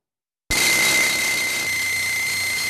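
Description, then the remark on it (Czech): Pneumatic drills breaking up a 16-tonne boulder that fell onto the Uhřenska road after wind uprooted a tree start abruptly after a brief silence and keep up a loud, continuous harsh roar with a steady high-pitched whine running through it, and no voices. “Pneumatické vrtačky jedou naplno a 16-tunový balvan se pomalu rozpadá.”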